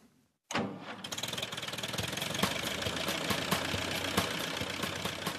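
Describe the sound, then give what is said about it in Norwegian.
The small Norwegian tractor Gråtass, running in Norway since 1995, starts abruptly after a brief silence and settles into a steady idle, its rapid regular knocking chug continuing loudly with no talking. “Den lille traktoren Gråtass har dura og gått her i Norge siden 1995, til begeistring for mange barn og unge.”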